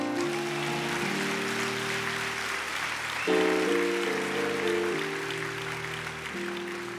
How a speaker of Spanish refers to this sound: ¿Alguien puede darle un aplauso a Jesús por eso?